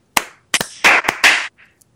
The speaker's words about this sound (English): Yo, let's clap it in.